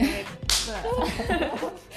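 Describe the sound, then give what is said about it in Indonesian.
A single sharp, loud high-five hand slap cracks out, followed by people talking and chuckling over the rest of the moment. “itu suara tos iya.”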